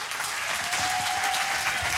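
Steady audience applause, a dense wash of many hands clapping at an even level for a couple of seconds, with a faint tone humming beneath it.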